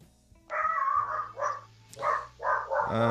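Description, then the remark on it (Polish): A dog barks outdoors at a caller's home in a string of about five tonal, drawn-out yelps heard over a thin phone line during a call, fairly loud, with a low steady hum underneath. “zawsze mnie to denerwuje, że ktoś nie potrafi swojego psa nauczyć, żeby w domu nie szczekał, ale to już osobista sprawa czyjaś.”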